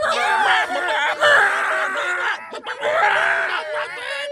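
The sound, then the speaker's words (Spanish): Several voices let out shrill, exaggerated high-pitched screams together, mimicking excited fangirls screaming for TV host Don Francisco, with brief snickering laughter mixed in; loud and sustained for a few seconds with a short break. “Di que, vamos a gritar todos así como vieja.”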